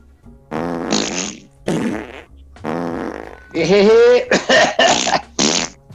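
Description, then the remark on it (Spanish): A series of loud bursts that sound like flatulence, several in quick succession with brief gaps, buzzy and rasping, mixed with voiced, cough-like blasts; a cough that sounds like a fart. “Uy, ¿eso fue un pedo o fue TAS?”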